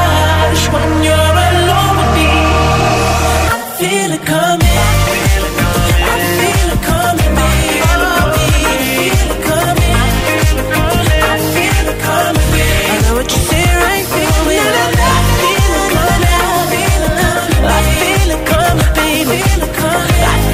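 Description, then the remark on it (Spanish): A loud, polished pop song plays continuously with a steady driving beat and layered synths, pausing briefly near the start before the full groove returns. No talking over it. “No sé si opinas lo mismo, pero esta es una canción que yo podría escuchar en bucle.”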